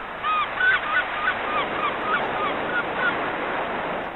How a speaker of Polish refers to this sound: I znowu mewy nam krzyczą.